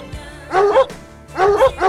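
A dog barks in quick, loud bursts, two pairs of sharp mid-pitched woofs separated by a brief pause, with no one talking.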